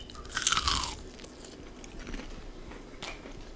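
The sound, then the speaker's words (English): A loud crunchy bite into a crispy fried chicken sandwich with buttermilk-marinated chicken, pickles and lettuce, followed by a few seconds of quieter crackly chewing with soft crunches. No one speaks. “It is so crispy. You get the tang from the buttermilk pickle flavor and the crunch from the pickles and the lettuce.”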